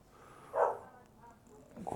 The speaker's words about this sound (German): Vielleicht hört man es, meine Hunde sind draußen. Äh, ich höre die bellen.